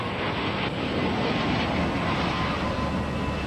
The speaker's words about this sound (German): Es ist Juni 1988 und die Habsheim-Flugshow findet im Elsass statt. Tausende von Zuschauern schauen in den Himmel, als ein A320 der Air France zur Landung ansetzt.